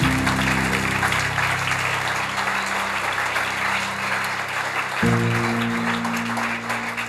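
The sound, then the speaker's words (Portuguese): An audience claps loudly and steadily for Jesus, a dense wash of many hands, while sustained low organ or keyboard chords play underneath and shift to a new chord near the end. “Quem crê, dá um glória a Deus, aplauda Jesus bem forte aí.”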